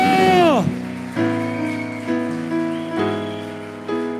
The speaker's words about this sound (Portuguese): Aleluia, aplauda de verdade ao Senhor.